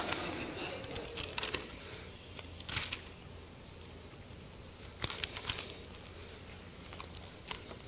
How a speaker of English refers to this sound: Uh, my, the pages of my Bible are still a little bit crispy and wrinkly and crackly from some outside service we had a little bit ago where the rain and thunder came down.